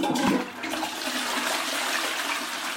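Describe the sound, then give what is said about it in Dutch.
A toilet in the neighbouring building flushes with a loud rushing whoosh that settles into a steady gurgling drain of water through sewer pipes, continuing without any voices. “Ik hoor hier toch de hele tijd een soort riolering. Ja, zo blub, blub, blub, blub.”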